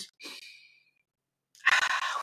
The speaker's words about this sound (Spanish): ustedes saben, solamente tomar ya una respiración profunda nos cambia totalmente la, energía.